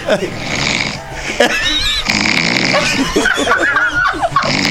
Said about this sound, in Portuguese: Um ronco que é- treme até